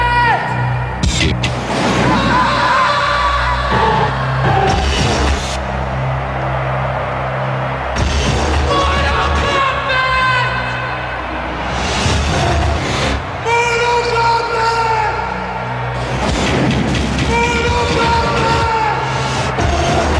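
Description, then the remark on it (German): Loud, driving electronic Mortal Kombat video game theme music, as used in the game's Mortal Monday marketing campaign, with a pounding beat, punctuated every few seconds by the aggressive shouted Mortal Kombat battle cry bursting out over the track. “bei dieser Kampagne war auch zum ersten Mal diese Mortal Kombat Musik mit dem Mortal Kombat Schrei zu hören.”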